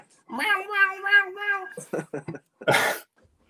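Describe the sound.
A human voice imitates a cat, drawing out a long wavering meow, then adds a few short choppy yowls and a breathy, hissing burst at the end.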